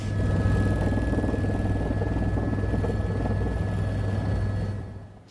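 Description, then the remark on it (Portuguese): A work crew's chainsaw, cutting fallen trees, drones steadily for about five seconds with a loud, buzzing, even pitch and no voices, then cuts off abruptly at the end. “Ali uma equipe, ó, trabalha com uma motosserra para tentar cortar essas árvores.”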